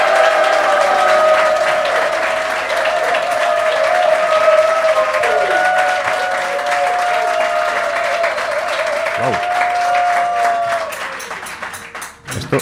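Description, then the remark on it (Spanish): A live audience of around fifty people applauds steadily and loudly for over ten seconds, with sustained cheering voices woven through the dense clapping before it thins out at the end. “Claro, como los llamamos invisibles, nunca los vemos, pero tenemos a 50, os lo aseguro, aquí delante, y suenan así.”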